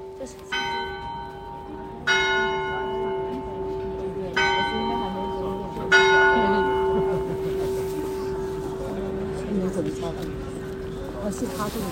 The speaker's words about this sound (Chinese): 然后前面有一个教堂敲的钟声，然后教堂前面呢站着一位就是歌手，在那边唱歌。